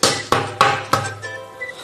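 knocking on a door

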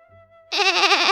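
young goat bleating

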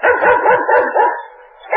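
dog barking

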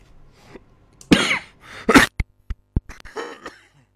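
cough

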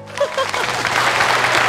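audience applause

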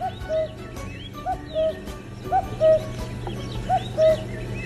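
cuckoo calling

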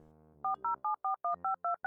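telephone number being dialed

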